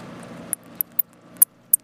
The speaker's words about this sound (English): So that's what a bat sounds like when it's trying to squirm out of your grasp.